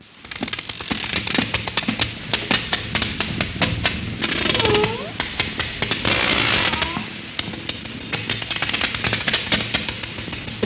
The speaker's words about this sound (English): just like that, but way louder, like crazy loud, so loud that it would hurt us to be listening to it. And this echolocation is so powerful that it, they can track a squid up to a mile away.